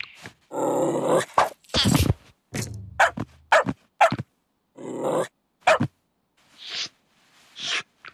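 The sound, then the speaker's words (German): A dog barks in a quick, irregular series of loud barks mixed with gruff, growly grunts, with short pauses between bursts and no talking. “Gute Idee, Hund. Versuch's mit Freundlichkeit.”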